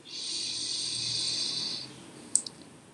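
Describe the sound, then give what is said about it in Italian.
A slow, deep inhalation during a guided relaxation exercise, a soft airy rush of breath lasting almost two seconds, followed by quiet and a couple of faint clicks. “respira lentamente, ispira ed espira, ispira”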